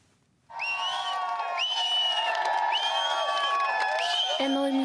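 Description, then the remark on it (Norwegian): A golf crowd on the green in Colorado bursts into loud cheering after a brief quiet moment as Europe celebrates its first Solheim Cup win on American soil, 18-10 over the USA. A dense, sustained roar of many voices with high whoops and shouts rising above it until the end. “jubel på Green i Colorado da Europa kunne feire sin første triumf i Solheim Cup på amerikansk jord etter seier med rekordsifrene 18-10 over USA.”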